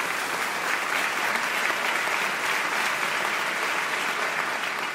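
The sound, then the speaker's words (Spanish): Steady audience applause, a dense crackle of many hands clapping at an even, sustained loudness for several seconds without a break. “no aplaudáis todavía que no os estoy dando una excusa para ponerle los cuernos a nadie.”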